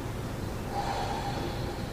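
A sleeping dog snorts and breathes heavily, with a rough, snuffling rasp that swells briefly in the middle before settling back into steady breaths.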